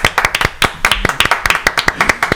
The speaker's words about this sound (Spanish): Aplaudan.